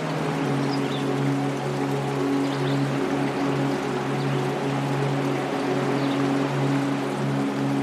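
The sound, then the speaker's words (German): A continuous, fairly loud wash of babbling stream water with distant waves rolling in behind it, steady throughout with a low droning hum underneath and no voices. “Das Plätschern des Bachs war gerade noch ganz sanft. Nun wird es immer lauter von weitem sind mittlerweile Wellen zu hören.”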